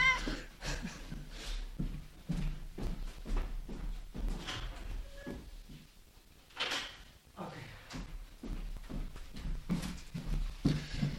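A restless female cat, about 12 years old, meows as she waits to be let out, amid a series of knocks and scrapes like a door or cupboard being handled, with short muffled bursts of movement throughout.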